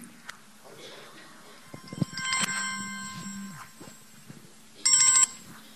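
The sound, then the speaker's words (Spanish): A mobile phone ringtone chimes in short bright bursts, one around the middle and another near the end, with a steady low hum and faint background voices underneath. “Me olvidé apagar el celular, perdón.”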